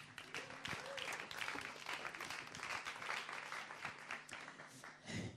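An audience applauds steadily, a dense wash of many hands clapping at an even level for several seconds, with a faint murmur of voices beneath the clapping.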